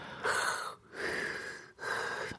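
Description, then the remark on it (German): A voice imitates a sleeping woman's heavy breathing, not snoring: three loud, airy breath sounds in a slow, steady rhythm, with brief gaps between them and no speech. “wenn meine Frau so schläft, dann hat sie so ein, ja, wie, wie ist denn das? Ja, nicht so ein Schnarchen, so, so ein, ja, die Atemgeräusche, ne?”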